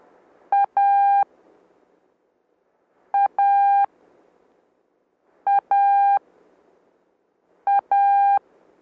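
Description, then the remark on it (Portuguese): Morse code tones repeat a short beep followed by a longer one, four times over with even pauses between. The beeps are loud, steady and mid-high in pitch, with no voices. “De Letra I formada por um som curto, ok? Letra T, um som longo.”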